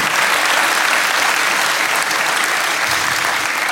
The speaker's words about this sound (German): Applaus für Stefan Tietze, meine Damen und Herren. Applaus für Florentin Will, meine Damen und Herren. Dankeschön.